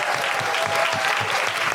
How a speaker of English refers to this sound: And a big, big, big round of applause and thank you to Soho Theatre.